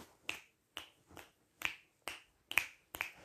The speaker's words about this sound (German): Ja, ich kann gut schnipsen, ich weiß.